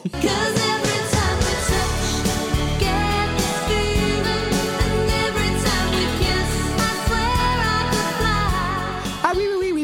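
A 1992 pop song by a Scottish female singer plays continuously at full volume, with a sung vocal line over sustained chords, a steady bass pulse and a regular beat throughout.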